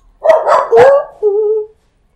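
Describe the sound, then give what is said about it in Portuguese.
A dog lets out three quick, sharp barks in a row, ending in a short, drawn-out whining howl. Loud, with no one talking. “Um cachorrês agora.”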